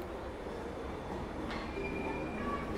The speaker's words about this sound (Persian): دیگه وقتش رسیده بود قطار سر جای همیشگیش وایستاد و تو پاتو گذاشی توی ایستگاه